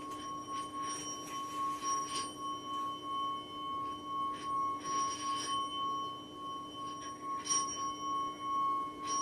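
An orin bowl bell, played in a Tanabata-themed sound performance by two elementary school children, rings with a steady, pure sustained tone and bright high overtones, humming on for the whole stretch with soft pulsing shimmer and no voices.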